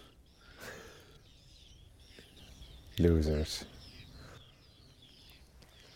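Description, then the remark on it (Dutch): Whiskered terns, adults and juveniles, give scattered thin, raspy calls throughout, with a short spoken word cutting in near the middle over a soft outdoor background; an adult carries food in its beak, chased by three young that cannot yet fly well. “Kijk, adult met voedsel in de bek, achtervolgd door Want... drie jongen.”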